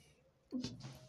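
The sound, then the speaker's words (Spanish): A single sudden, moderately loud sneeze, with a short voiced onset bursting into a breathy, hissing release that trails off, with no talking around it. “Salud. Salud, salud,”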